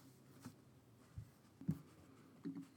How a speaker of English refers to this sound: You like this this mechanism here, this whole typing. One, it sounds good, right? But the two, it's like a nice, it's like a like, nice prop to make it seem like